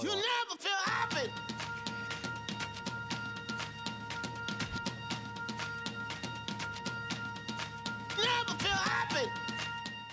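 An electronic pop track with a steady pulsing beat and sustained synth chords, with sung vocal phrases at the start and again near the end, playing loud and close throughout.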